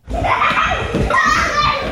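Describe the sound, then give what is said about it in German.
A lively crowd of children playing and romping, their overlapping shouts and chatter filling the space continuously, with bright squeals rising above the din. “Mit anderen Kindern spielen und toben, das macht richtig Spaß.”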